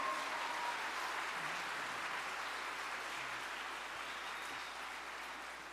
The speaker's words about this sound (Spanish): ¿No vale esto un aplauso al Señor Jesucristo?